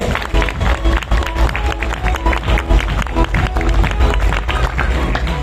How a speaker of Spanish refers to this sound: Un aplauso para ustedes, chicos.